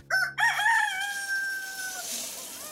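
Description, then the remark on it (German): A single rooster crows once outside in the middle of the night, loud, a harsh opening note stretching into a long, drawn-out call that fades after about two seconds. “Draußen kräht ein Hahn mitten in der Nacht.”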